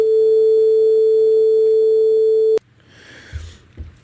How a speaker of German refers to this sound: Sinuswelle ganz einfach, die einfachste Wellenform, die es gibt. Ähm, wir können auf der auch oder mit dieser Welle auch alle anderen Wellen produzieren.